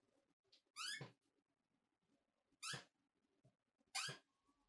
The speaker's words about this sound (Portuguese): Eu acho que esse barulho aqui foi mais tranquilo que dos outros que já aconteceram por aqui, que é a cadeira.